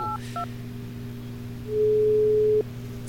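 A few quick keypad dialing beeps as a phone call is placed, then a steady electronic ringback tone hums on, swelling louder for about a second before cutting off, with no voices present.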